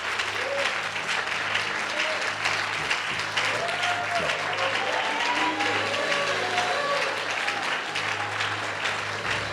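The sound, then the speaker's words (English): A church audience claps continuously to give God the glory, a dense, steady wash of applause, with scattered voices calling out faintly beneath it and a low hum running throughout. “Clap, clap your hands and let's give God the glory.”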